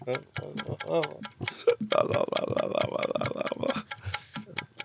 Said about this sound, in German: Ich gebe dir jetzt einen 10-Sekunden-Timer.